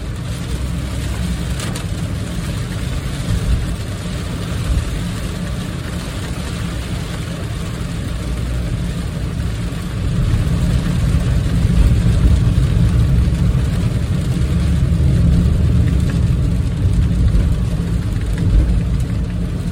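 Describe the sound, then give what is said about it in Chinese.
Heavy downpour pelting the windows and roof of a moving car, recorded from inside the car, which is not going very fast; a dense, steady wash of patter over a deep road and engine rumble that swells louder about halfway through. “那个外面雨打在车窗上，打在整个车子的屋顶上，我我觉得那个声音也是非常有有力量的，非常惊人的一个声音。”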